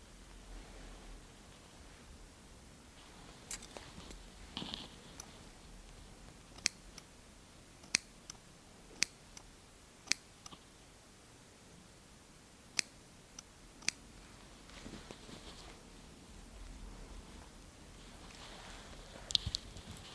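Scissors snip in crisp, sharp bursts while trimming eyebrows and a beard, a dozen or so cuts spaced irregularly, some in quick pairs, over a soft steady hiss with no talking.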